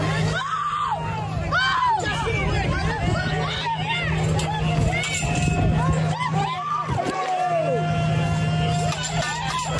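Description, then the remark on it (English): A large protest crowd at night murmurs steadily, many overlapping voices blending into a dense, continuous hubbub with occasional louder calls rising above it, sustained at an even level throughout. “They have absolutely not right now, this crowd is probably the same size, if not bigger, uh, as last night.”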